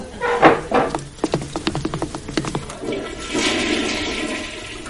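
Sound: toilet flushing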